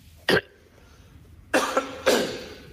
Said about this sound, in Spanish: aunque está acatarrado y así empezaba hoy a, toser en la rueda de prensa previa al partido ante el Racing.